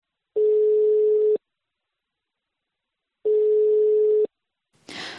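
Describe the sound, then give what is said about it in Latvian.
Ringback tone of an unanswered phone call from Latvian Radio to Kazāks: two steady, mid-pitched beeps about a second long, separated by a few seconds of silence, then a short burst of rustling noise at the end. “Arī tagad, zvanot Kazākam no sarunas, viņš izvairās.”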